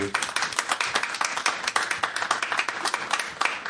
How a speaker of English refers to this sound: Real people really clapping.